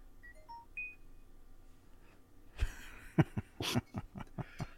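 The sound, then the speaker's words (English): A phone chirps out a quick run of short electronic beeps at different pitches as messages from Larry come in, followed by several sharp clattering knocks, with no one speaking. “Larry's just blowing up my phone now.”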